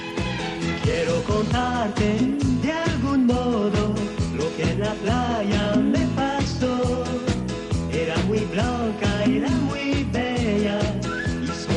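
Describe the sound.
A cheerful 1970s Spanish pop cover song plays loud and continuous, with a lead vocalist singing over a full band and a steady, bouncy beat.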